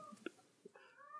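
A dying cat in a house lets out a brief chirp, then a drawn-out, strained meow that rises and wavers, heard fairly quietly in the background with no one speaking.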